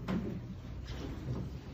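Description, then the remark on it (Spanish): A door being closed: a few soft wooden knocks and muffled thuds spread over a couple of seconds, fairly quiet, with no one talking. “Puedes cerrar la puerta, por favor.”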